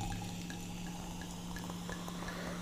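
A bubbly drink is poured, a steady quiet stream with tiny fizzing pops and drips scattered throughout, no voices heard.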